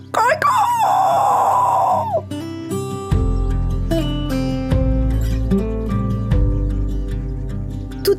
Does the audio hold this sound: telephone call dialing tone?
no